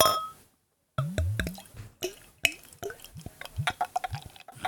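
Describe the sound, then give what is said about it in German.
A very dark beer, Gießer Dunkel, gurgles and splashes into a tulip glass in uneven glugs, with bright plopping and dripping sounds; after a brief silence at the start the pour continues without talk. “So, ruhig ein bisschen schütten, ne? damit sie auch schön die, die Tulpe, ja, ja.”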